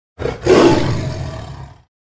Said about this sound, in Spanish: Y ahí pudieron escuchar nuevamente a la narradora y en esta ocasión el sonido fue de un tigre.